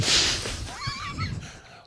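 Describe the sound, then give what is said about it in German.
A donkey brays once, a rasping, wavering call rising and falling for about a second after a breathy hiss, moderately loud, with no talking. “Ich würde, ich würde einfach einen Esel nehmen und das einfach ja.”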